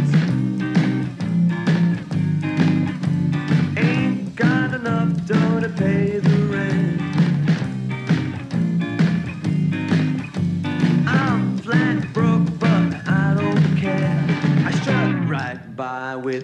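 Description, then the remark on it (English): A song played as a clue plays steadily and loudly, a sung vocal line over full band accompaniment, running continuously before cutting off abruptly near the end. “So, one more song to give you a clue, and I'll be right back.”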